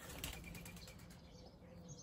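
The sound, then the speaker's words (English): A bird's wings flap in a quick, fluttering burst, then fade as it flies off, leaving quiet background hum. No one speaks. “Goodbye, bird.”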